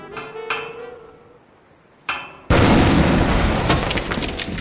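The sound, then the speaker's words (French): A few heavy thuds strike a wall as it is smashed through with someone's head, then a loud, sustained crash of breaking masonry and tumbling debris erupts and keeps rumbling to the end. “vous auriez pu passer par la porte au lieu de démolir le mur avec votre tête.”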